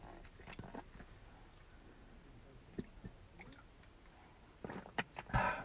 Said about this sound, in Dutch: Even een slokje water hoor.